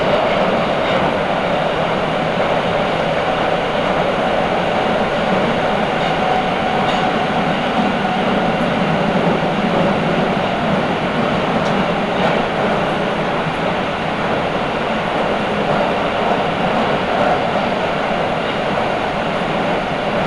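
A Nagoya Municipal Subway Higashiyama Line train in Japan runs at speed between stations from Takabata toward Fujigaoka, a steady, loud rumbling roar with faint rhythmic rattling of the cars throughout, no voices or announcements.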